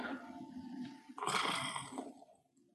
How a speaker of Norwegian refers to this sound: Og du hører en slags knurring.